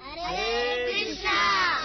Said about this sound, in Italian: Abbiamo qui in studio oggi 1, 2, 3, 4, 5, 6, 7, 8, 9, 10, 10 bambini. Bambini e bambine, salutate gli ascoltatori, fatevi sentire cosa dite voi.